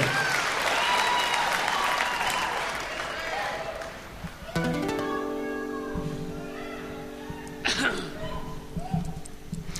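Concert audience applause on a two-CD live concert recording, a dense, loud wash of many hands clapping that thins out after a few seconds as sustained musical notes of the song begin, with scattered claps continuing beneath the music.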